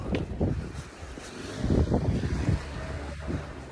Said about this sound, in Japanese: これ風の音で、聞こえてるのかな